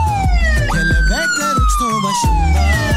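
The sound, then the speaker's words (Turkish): A loud police siren wails in a long, slowly falling tone, with rhythmic low thumps pulsing underneath it throughout. “Kırbaç siren, siren ne varsa. Kırbaç açık trafiğe vermiyoruz size siren.”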